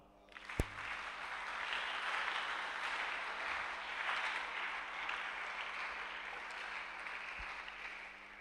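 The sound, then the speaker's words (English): An audience claps together in a steady, sustained round of applause that starts quickly and continues at an even level for several seconds, soft, with no voices. “You are not clapping”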